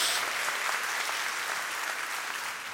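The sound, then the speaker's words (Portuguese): An audience claps together in praise of God, in steady, dense applause, many hands blending into a continuous crackling wash that holds at an even level throughout without any voices rising above it. “Pode dar uma salva de palmas a Ele, pode dar um glória a Deus aí em nome de Jesus.”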